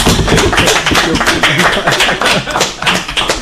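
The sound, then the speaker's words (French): Loud, steady applause from a small group at the end of a live debate on the radio show Droit de parole 28 on Choc FM 105.1, a dense patter of many hands clapping at once with no voices over it. “Je pense qu'on peut vous applaudir tous très fort.”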